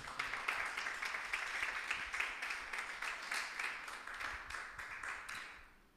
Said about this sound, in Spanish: Un aplauso a Cristo por eso.